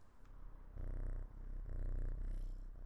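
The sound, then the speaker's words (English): Megan, a cat held up to the microphone, purrs right up close in low, rumbling pulses that swell and fade with each breath, steady and continuous, with no voices over it. “Um, Megan, my little Megan, shall I hold her up to the microphone and see if you can hear her purr?”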